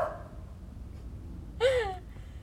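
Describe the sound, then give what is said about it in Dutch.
A single sharp dog bark rings out partway through, moderately loud, over a steady low background rumble with no one talking. “nog een hond die erbij gaat blaffen?”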